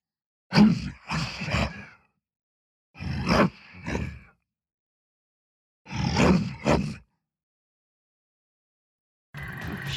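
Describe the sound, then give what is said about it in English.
Three bursts of deep, gritty growling roars run through a guitar amp, each rising and fading over about a second and a half, with distorted amplified texture; a fourth begins at the end. Loud, no speech. “And finally, I sent some of that signal through a guitar amp.”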